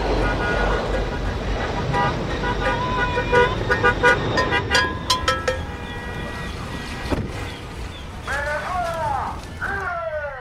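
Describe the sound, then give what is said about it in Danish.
Many car horns honk over one another in a huge traffic jam of cars with Trump flags waving, some blasts long and sustained, others short toots, with engine rumble and faint voices mixed into the din. “men endte så ligesom i sådan en kæmpe trafikprop”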